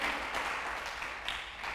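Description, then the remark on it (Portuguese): A crowd applauds steadily, a dense, crackling wash of many hands clapping at once that holds an even loudness throughout the short stretch, with no voices heard. “Dá mais um aplauso aí, vale a pena.”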